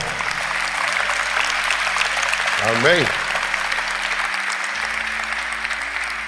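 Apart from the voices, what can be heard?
audience applause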